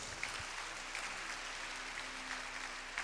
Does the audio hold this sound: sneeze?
no